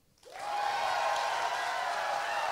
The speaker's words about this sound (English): This is the most evenly matched, one of the most evenly matched uh, bouts we've ever put together. By round of applause, who thinks Horowitz is going to win?